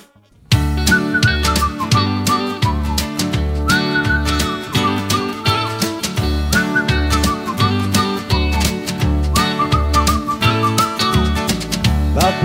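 After a brief moment of silence, a song kicks in and plays loudly and steadily, with a bouncy repeating bass beat and a bright, whistle-like melody over full backing instruments.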